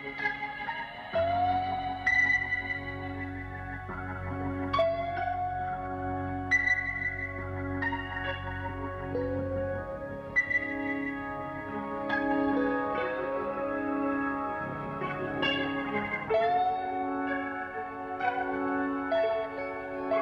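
A slow, spacious psychedelic rock intro plays on its own, with sustained gliding guitar tones over a low droning bass and reverberant swells, steady and moderately loud with no voices.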